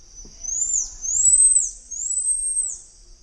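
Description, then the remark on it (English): A red-handed tamarin that has moved into the neighborhood of pied tamarins gives three long, high-pitched whistled calls in a row, its call changed to sound like theirs, each gliding up and then dipping, clear and fairly loud with no other sounds around them. “okay, and here it is when it moves to the neighborhood of pied tamarins.”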